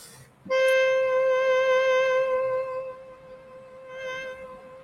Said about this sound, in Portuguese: Pronto, uma clarineta. Observa isso.